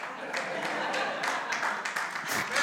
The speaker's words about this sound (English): Some of y'all clapping like he he realizes.